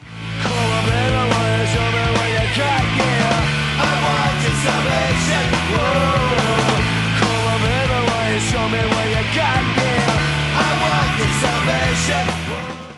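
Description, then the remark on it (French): A loud, dense recording of the original 1994 version of a punk rock song plays throughout, with driving distorted guitars, steady bass and shouted vocals over a fast, unbroken beat. “La musique originale de 94 ressemblait à ça.”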